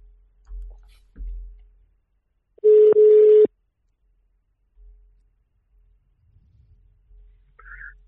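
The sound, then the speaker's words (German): A single loud, steady ringback tone sounds for under a second, the mid-pitched buzz of a phone line ringing out as a call is placed directly to someone, surrounded by a few soft low thumps and otherwise near silence. “Ich würde sagen, wir klingeln einfach mal direkt durch, oder?”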